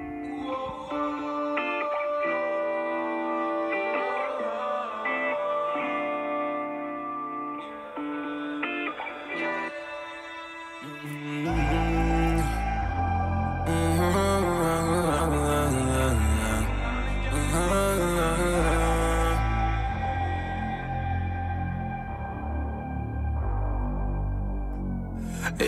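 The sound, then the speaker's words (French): A rap instrumental opens with sustained melodic synth tones, then about halfway through a heavy, booming bass and driving beat crash in and play loud and steady, with no vocals. “le prochain son, c'est …”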